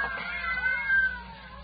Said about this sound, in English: Yes, some fiend, knowing her deadly fear of cats, has locked her in here with half a dozen of them.